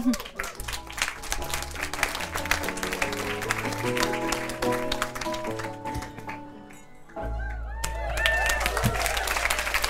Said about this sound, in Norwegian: Ja da, det klappes på lille Ole Bull i Bergen. Eh, Vestlandets eh, stiligste kjeller er fylt til randen.